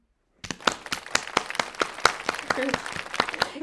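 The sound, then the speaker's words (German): Hand clapping in applause for a tasty falafel roll starts abruptly and continues as a quick, fairly steady run of sharp claps, joined by a few voices briefly talking underneath toward the end. “Können wir für klatschen”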